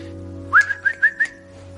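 A person whistles a short call, a quick rising note followed by a few clipped pulses on one pitch, over a steady low electrical hum.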